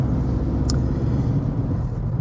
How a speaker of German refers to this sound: ihr seht, ich bin gerade ein bisschen unvorbereitet, weil ich hier, halt hier gerade noch Auto fahren muss, so nebenbei. Und Feierabend Richtung Frankfurt, äh, Feierabendverkehr ist nicht äh, das Ideale noch nebenbei